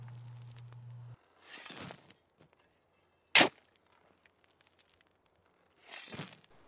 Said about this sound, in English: Soon McCormick Cemetery was filled with nothing but silence. Silence and the sound of Frank slowly filling back in the hole.